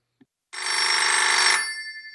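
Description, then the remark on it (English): A loud telephone ring bursts in with a bright, buzzy electronic trill that holds steady for about a second, then cuts off and leaves a fading ringing echo. “Who's on the phone?”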